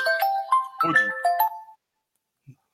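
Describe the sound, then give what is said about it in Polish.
A mobile phone rings with a bright, melodic ringtone of several chiming notes that plays for under two seconds before cutting off abruptly, followed by a faint soft knock; an incoming call to the speaker's phone, which is then silenced. “Prawdopodobnie, nie, nie, to Zbyszek dzwoni, także Zbyszka wyłączę. Wyciszę telefon w tej chwili dopiero, przepraszam bardzo.”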